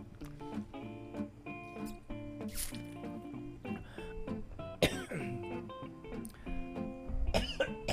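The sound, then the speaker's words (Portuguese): Several coughs and throat clears break out in bursts, mixed with small rustling and handling noises as someone pauses to drink water, over a steady tonal background. “Eita, deixa eu beber água aqui. Calma aí, rapidinho.”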